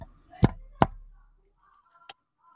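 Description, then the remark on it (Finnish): Two crisp taps picked up by an overly sensitive microphone land in quick succession, followed after a pause by a single fainter tap, with nothing else but quiet background. “toi kaikki kuuluu, toi kaikki naputtelu kuuluu. Mun on liian herkkä mikki.”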